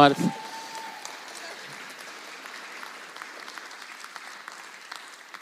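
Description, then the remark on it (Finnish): An audience breaks into sustained applause, a dense, steady patter of many hands clapping that carries on at an even level for several seconds after a brief spoken word at the start. “Annetaan aplodi siihen kanssa.”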